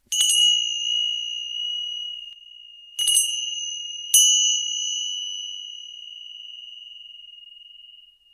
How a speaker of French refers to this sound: et j'aime bien accompagner la méditation justement avec des sons un petit peu inconnus. Alors au moment du réveil, par exemple, je vais utiliser les clochettes.